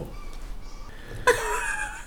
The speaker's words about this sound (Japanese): 今も鳥の声が聞こえる